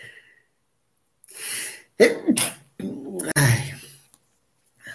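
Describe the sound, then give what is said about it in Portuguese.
A loud sneeze with sharp gasping intakes of breath leading into explosive bursts over a few seconds, with no talking around it. “Pronto, espirrado estou.”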